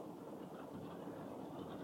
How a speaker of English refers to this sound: it's raining right now. That's the the noise you hear in the background.